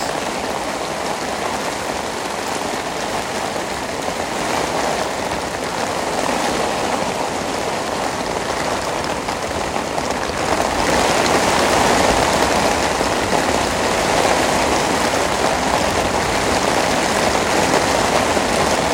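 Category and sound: nature, heavy rain pouring down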